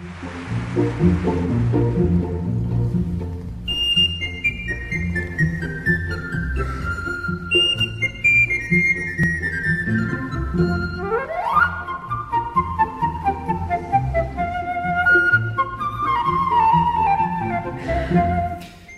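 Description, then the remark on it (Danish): A recorder (blockflute) plays bright, fast melodic runs that cascade downward in repeated phrases, with a steady lower accompaniment underneath. The playing, by Grammy-nominated recorder player Michaela Petri, is fairly loud, with no voices. “Uh, Michaela Petri, øh, Grammy-nomineret fløjtenist og en af verdens førende blokfløjtespillere.”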